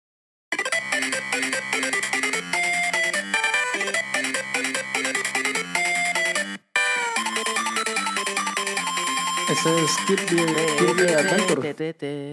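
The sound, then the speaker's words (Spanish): Bright chiptune melody from the video game Kirby's Dream Land plays steadily, with a bouncy bass line under square-wave leads; a short break near the middle, then the tune resumes with warbling high notes before cutting off. “Kirby, Dreamland, sí, punto pa' mano.”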